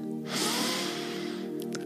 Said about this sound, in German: Wir atmen ein durch die Nase